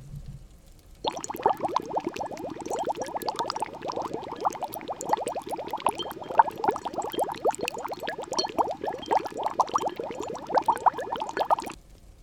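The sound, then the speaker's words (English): A bubbling cauldron sound effect: a thick, steady stream of rapid bubbles and gurgling pops that churns continuously for about ten seconds, fairly loud, then cuts off abruptly. No one speaks. “We've got to go over to the cauldron, see what's bubbling up in the cosmos.”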